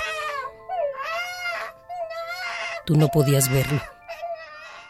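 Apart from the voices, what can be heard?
baby crying and wailing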